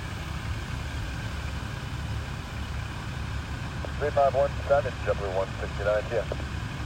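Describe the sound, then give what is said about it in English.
Trucks drive along a road down below, heard from a grassy field, a steady low engine rumble. Near the end, brief muffled voices rise faintly over the traffic noise. “And I'm going to go ahead and turn the phone towards the trucks down there.”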